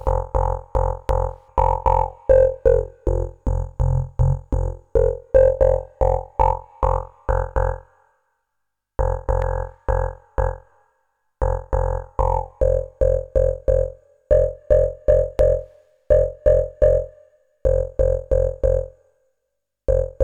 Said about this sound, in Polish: Czego brakuje? Racja, jakiegoś filtru. Do wyboru klasyczne filtry typu PPG Waldorf w różnych trybach pracy.